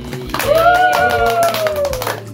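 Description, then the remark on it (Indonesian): A small group claps steadily for a couple of seconds, a quick run of sharp, loud hand claps, while a high voice lets out a long cheering whoop over them. “aku mau ngucapin terima kasih buat teman-teman yang udah datang di podcast episode 1 di Cina tepuk tangan dulu”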